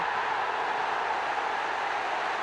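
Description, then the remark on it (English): A huge Old Trafford crowd roars and cheers Andy Cole's first goal for Manchester United, turned in after a Giggs corner, a dense, steady wash of noise that holds at the same loud level throughout, with no single voice standing out. “And the crowd welcomes the first successful strike by the £7 million man.”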